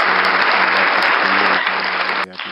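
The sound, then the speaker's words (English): Loud, steady applause from a crowd, a dense crackle of many hands clapping that holds for a couple of seconds before suddenly thinning out near the end. “you got to clap for everything.”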